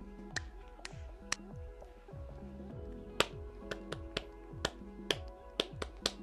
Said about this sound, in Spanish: Entonces, vamos a empezar a aplaudir así.